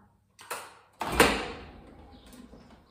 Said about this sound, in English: We have at the entrance to this building automatic doors. And that sounds, for your sound lovers, like this. I'm pressing the button now.